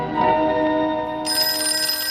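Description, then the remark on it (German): An old rotary telephone, a large box with a numbered dial turned with the index finger, rings continuously at fairly loud volume, its metallic jangle growing brighter and harsher partway through, with no voices present. “Ein riesiger Kasten mit so einem Rad, wo Zahlen draufstehen. Man dreht mit dem Zeigefinger auf die jeweilige Zahl.”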